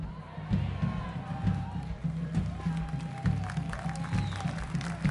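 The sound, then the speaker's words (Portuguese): A crowd claps steadily in applause for the Lord, a dense patter of overlapping hand claps over a low, constant hum, with faint murmuring voices mixed into the applause throughout. “Do Iapoca ao Chuí estão batendo palma?”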